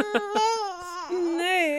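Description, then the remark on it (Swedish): A baby boy wails loudly into the microphone, a sustained, wavering cry broken by a couple of short gasping catches before the crying rises again. “Eh, förlåt eh, bebis.”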